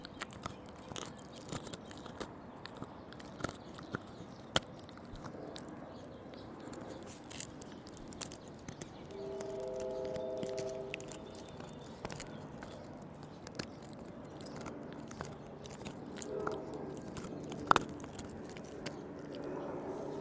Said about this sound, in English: I'm chewing my gum obnoxiously. My mother wouldn't approve.